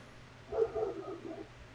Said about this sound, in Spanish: Ahí se ha oído el perro.